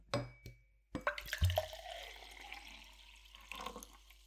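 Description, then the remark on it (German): Water is poured into a glass, starting with a few sharp clinks and drips and then a steady, splashing trickle, with no voices. “Ähm, und dann zum Beispiel auch so Sachen, wo sie, dass du daran herrsch, wie sie sich Wasser einschenken oder so irgendwas.”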